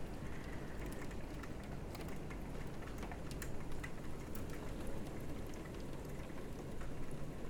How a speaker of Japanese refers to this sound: まあ、雨降ってもこんなんじゃないみたいな毎日毎日こんなすんごい荒れ狂ってる日はねあんまないと思うあんまないと思うんですよ都市的にもね